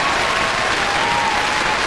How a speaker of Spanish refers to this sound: ante la realidad de que se hizo efectiva la renuncia de Ricardo Rosselló, yo creo que eso amerita un aplauso y como dije que iba a hacerlo todo, déjame darnos un aplauso ahí.